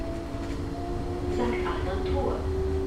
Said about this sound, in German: Unser Tram hält die ganze Nähe vom Rhein.